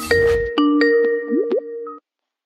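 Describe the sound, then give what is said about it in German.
A short Skype call-connecting chime: a quick series of bright, plucky electronic tones with little rising blips, played clearly and alone after a brief noisy burst, lasting about two seconds. “wir überhaupt, wenn der Anfang mit Skype viel geiler ist, mit diesem Dim, Dim, Dim, Dim?”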